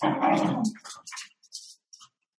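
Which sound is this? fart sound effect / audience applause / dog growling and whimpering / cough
dog growling and whimpering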